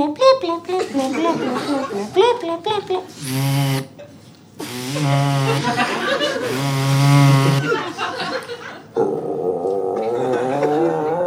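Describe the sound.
A man vocally imitates a robot pinging an elastic band at Tom Jones's ear: a robotic, buzzing twang with several strained, growling bursts with pitched harmonics, some short and some sustained, loud, ending in a raspy warble.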